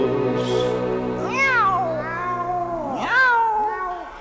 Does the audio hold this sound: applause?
no